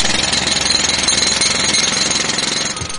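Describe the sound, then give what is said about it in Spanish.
A power drill grinds loudly and steadily for about three seconds, a dense mechanical roar with a high whine running through it, no voices. “Ya tengo mi taladro listo.”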